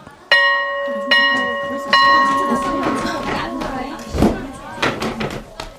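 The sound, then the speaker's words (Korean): A school bell chimes three times in quick succession to signal the start of class, each ringing tone lingering, followed by a busy murmur of female students chattering and moving to their seats. “수업 시작을 알리는 종이 울리자 3355 모여서 떠들던 여학생들이 자리를 찾아가서 앉았다.”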